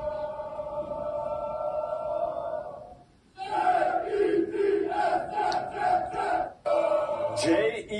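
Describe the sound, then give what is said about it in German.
A loud crowd of Jets fans, the fan club Green Gang Germany, chanting in unison, a sustained drawn-out cry followed by rhythmic repeated shouts of "Jets, Jets, Jets" with brief pauses between phrases, dense and roaring throughout. “So heißt deren Fanclub. Auch der grüßt euch. Mit deren Chant.”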